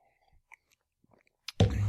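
Sipping of coffee, with a few quiet lip and mouth clicks leading into a short, loud slurp near the end. No one speaks.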